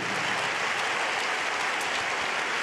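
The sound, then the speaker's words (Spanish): A crowd claps steadily and densely as applause of praise to God, a continuous wash of many hands applauding at an even loudness throughout, with no voices standing out above it. “Levanta un aplauso de alabanza a Dios por lo que Él hará en tu vida.”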